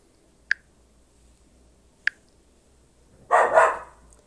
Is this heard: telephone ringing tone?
no